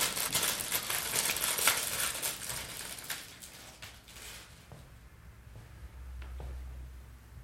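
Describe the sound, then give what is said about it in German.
Busy crinkling of plastic packaging holding ginger sticks for a few seconds, then quieter scattered rustles and small clicks as a ginger stick is pulled out. No one speaks. “Das sind Ingwerstäbchen. Magst du eins? Ja, gern. Dann hole ich dir mal eins raus.”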